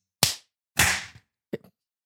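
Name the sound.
single hand clap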